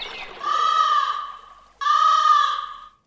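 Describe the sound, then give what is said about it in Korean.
Two loud, drawn-out crow caws ring out, each lasting about a second with a short pause between them. No one speaks. “아니 저 까마귀 소리”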